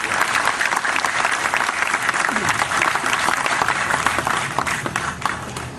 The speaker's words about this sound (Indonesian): Tepuk tangan semua teman-teman sekalian untuk cinta kita bersama.